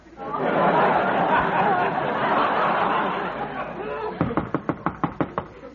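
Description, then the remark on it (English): Loud, rapid pounding on a door, around nine heavy blows in quick succession, follows a stretch of murmuring crowd chatter and light laughter. “Ah, ah, this time he beat the door in.”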